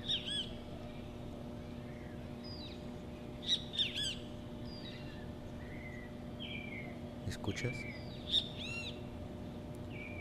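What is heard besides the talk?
birds calling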